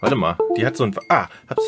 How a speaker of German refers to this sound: Das ist das Geräusch vom USB-Kabel der Maus.